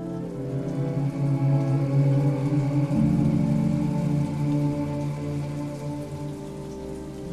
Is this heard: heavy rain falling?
yes